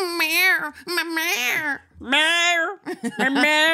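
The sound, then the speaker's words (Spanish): A voice mimics an actor crying in a film, sounding like a cat's wailing cry: drawn-out, strained yowls rising and falling in pitch, loud, in three or four long bursts with brief breaks between them. “como esos gatos satánicos.”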